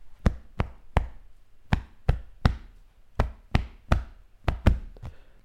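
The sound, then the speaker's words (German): A series of about fourteen sharp knocks on a hard surface, tapping out the rhythm of Jingle Bells in an uneven, song-like rhythm with short groupings and pauses, with no voices. “Aber auch da hast du nicht die Wörter geklopft, oder?”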